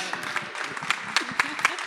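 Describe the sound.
Audience applause: scattered, uneven claps over a steady wash of crowd noise, with murmuring voices underneath and a few sharper, louder claps standing out.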